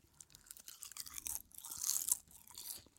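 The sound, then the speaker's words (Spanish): Crisp, crackly chewing of crunchy salted seaweed snacks, a steady run of brittle bites and crunches lasting about three seconds, louder in the middle, with no talking. “Sí, son crujientes, son mm. súper ligeras, o sea.”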